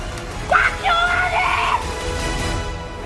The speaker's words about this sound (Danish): Jeg skriger af lettelse, jeg skriger af lykke, jeg skriger, fordi det hele er overstået. Jeg har klaret det her, jeg har vundet Robinson, men jeg har, jeg har gjort meget mere end det.